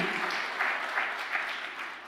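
A crowd claps steadily for a couple of seconds, a dense, even patter of many hands that swells slightly in waves without dying away.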